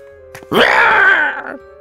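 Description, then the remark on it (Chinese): A cat called Mao Laoshi lets out one loud, drawn-out shriek of pain after its tail is stepped on, harsh and high-pitched, sustained for about a second with a slight waver before breaking off, with no talking. “刚才那可爱的声音瞬间变成了凄厉的惨叫声。”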